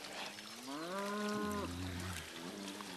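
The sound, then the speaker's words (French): A thirsty, hungry cow gives a long, drawn-out moo that swells then drops lower, followed by a fainter second low call, over a steady outdoor hiss with a hint of trickling water. “Père, qu'allons-nous faire Les animaux ont soif. Et faim aussi.”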